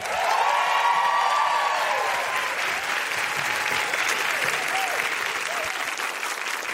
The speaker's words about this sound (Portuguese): Pode aplaudir ….